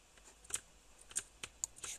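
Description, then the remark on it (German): A handful of crisp computer keyboard clicks tap out in an uneven rhythm as someone plays a video game with the keyboard, fairly quiet, with no talking over them. “spiele mit, äh, übrigens mit äh, Tastatur.”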